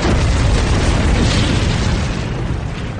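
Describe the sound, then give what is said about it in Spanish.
A deep, sustained volcanic eruption boom rumbles heavily at full loudness for about two seconds, then eases slightly while the roaring low-end continues. No one speaks. “¿Podría una de las siete señales ser un volcán?”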